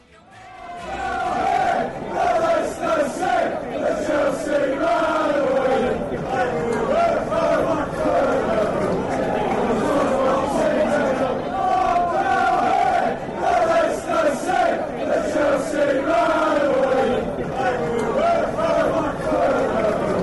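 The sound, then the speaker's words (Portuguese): A big crowd of Leicester football supporters chants loudly together in a steady, rhythmic, sing-song roar that stays at constant volume for about twenty seconds, with no other sound cutting through. “Eu ia usar essa, é essa figura, mas não, eu vou correr com a torcida do Leicester.”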